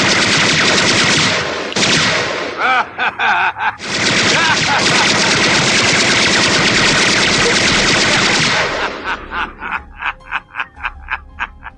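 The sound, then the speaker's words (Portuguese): Loud, sustained machine gun fire, a dense rattling barrage with a few brief breaks, ending in a string of separate rapid shots at a steady, stuttering rhythm. “Olha, eu vou contar até 10 e você vai tirar esta cara feia, amarela e esse traseiro da minha frente antes que eu te meta um monte de balas.”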